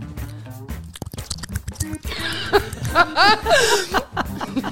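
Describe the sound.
Quick run of wet, squelching mouth noises made by pulling at the cheeks, a close vocal imitation of oral sex, giving way to several seconds of chuckling laughter.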